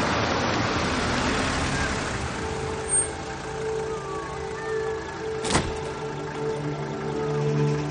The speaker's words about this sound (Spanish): Entonces llega un taxi y se detiene frente al bar.